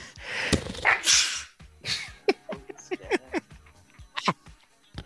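A loud, close sneeze bursts out near the start, followed by a string of short, sharp, squeaky vocal sounds that trail off over the next few seconds.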